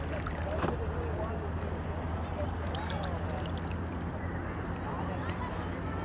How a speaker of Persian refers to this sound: آیا این صدای آب صدای خشخشه چیزی به روی زمینه به روی آب اصلا مهم نیست که چیه فقط به این توجه بکنیم که اون صداه چی بود از کجا اومد و به کجا رفت